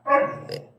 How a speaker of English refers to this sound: He's a husky, so he I, likes to talk a lot.